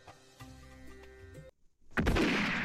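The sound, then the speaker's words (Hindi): A single loud, booming gunshot, fired by the king's soldiers at a man carrying a flag, bursts out after a short silence and rumbles on, preceded by a quiet stretch of sustained tonal music. “वो नहीं रुका और बादशाह के सिपाहियों ने गोली चला दी वो गिर गया लेकिन झंडा उसके हाथ में था”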